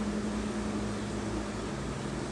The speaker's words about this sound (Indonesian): oh iya sorry juga di sini lagi hujan jadi sorry kalau agak agak berisik ya